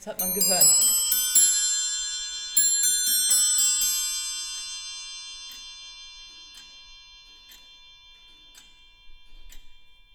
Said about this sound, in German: Ein geübtes Ohr wie das der Uhrmachermeisterin kann aber schon am Ticken erkennen, wie es der Uhr geht, wie bei dieser Bodenstanduhr von 1760.